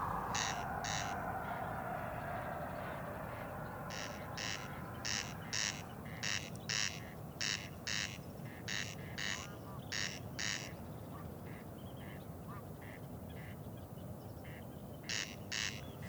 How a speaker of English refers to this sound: Mm, I'm um, counting corncrakes, and the way you count them is by counting these calling males.